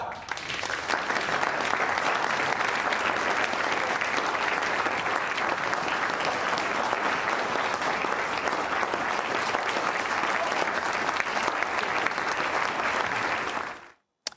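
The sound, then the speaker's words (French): Sustained applause from a large audience, a dense steady roar of many hands clapping at an even loudness for about fourteen seconds before cutting off abruptly. “Ces applaudissements, ils ont un goût un peu amer pour nos publics.”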